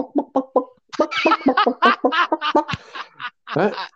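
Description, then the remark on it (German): A person imitates clucking hens with a quick run of short, rhythmic clucks, then a looser stream of choppy, squawky bursts, fairly loud with no other talking. “Und da habe ich alles, was ich in mir hatte, natürlich in den Komposthaufen gesetzt und neben mir die Hühner so.”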